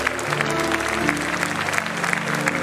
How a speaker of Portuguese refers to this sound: Levante a sua mão. Aplauda o Senhor com a salva de palmas mais bonita que você puder.